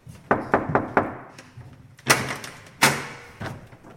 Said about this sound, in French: On monte les escaliers qui craquent, on s'arrête au quatrième, on toque à la porte.